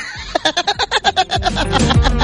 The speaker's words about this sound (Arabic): هذا بوري بوري بوري دراجات